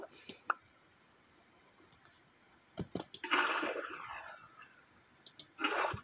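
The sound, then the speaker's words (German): Video game water and lava flowing sounds, as water is placed and lava is poured, come in two short rushing, splashing bursts, with a few sharp clicks scattered in between against a quiet background. “Dreimal Wasser, äh, also einmal Wasser halt geplaced. Und dann halt wurde die Lava gegossen.”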